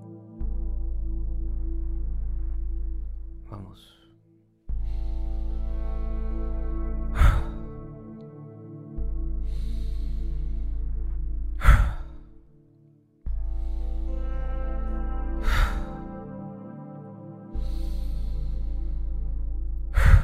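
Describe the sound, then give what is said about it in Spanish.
Seven deep pranayama breathing cycles repeat at a steady pace, each ending in a sharp, forceful breath, over a soft sustained drone with no talking. “Vamos a hacer siete ciclos de esta respiración.”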